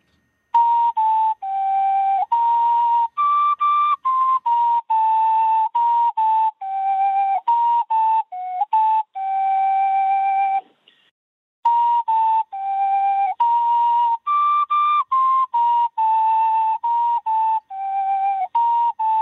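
An ocarina plays a steady, breathy melody of pure, flute-like notes for the Fête de la musique, mostly mid-range with a few higher phrases, running nearly continuously with one short pause midway. No talking is heard.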